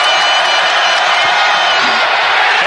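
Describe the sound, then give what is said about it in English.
A large arena crowd cheers in a steady, dense roar lasting a few seconds, loud and continuous with scattered whoops rising out of the broad wash of voices. “Not quite as loud in here as it was for free bacon night.”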